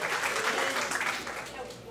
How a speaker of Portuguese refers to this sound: A, aplauda o Senhor, porque Ele é o Senhor da vida. Ele é o Senhor da vida.